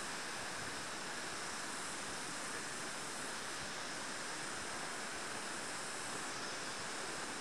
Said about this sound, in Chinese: 走过一个小溪流，我们现在走到的是一片种了包括像是朝天椒还有豆角的农地，农地非常的潮湿，陆地也非常的泥泞，因为前几天这里下了大雨，所以水位很高，到人的膝盖